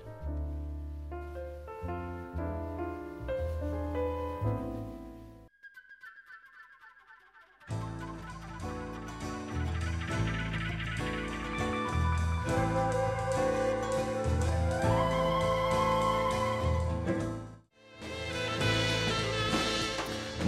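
A full music track plays loud, with dense bass, layered instruments and bright high accents; it drops briefly to a sparse sliding passage midway, then returns fully.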